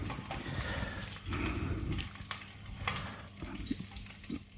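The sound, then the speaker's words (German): Meat sizzling on a grill, a steady crackling hiss with scattered sharper pops and spits, fairly loud and continuous with no talking. “Und beim Grillen müsst ihr mir jetzt ja nicht unbedingt zuhören”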